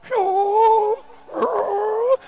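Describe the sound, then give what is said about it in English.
A voice imitates the treble stage of snoring with two drawn-out, fairly high, whiny tones, each lasting nearly a second, separated by a brief pause and sung steadily at a moderate loudness. “When they are snoring, they start from treble. She, she, she. Then they go to auto.”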